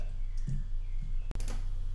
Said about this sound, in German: Ich klicke auf Fertigstellen, um das Passwort Safe das erste Mal zu starten.